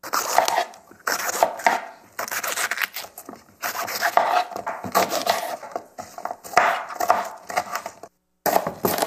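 A knife chops green onion on a board in rapid, steady clusters of crisp, sharp taps, pausing briefly between bursts; no one speaks.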